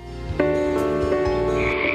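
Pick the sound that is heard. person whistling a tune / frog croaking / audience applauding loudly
frog croaking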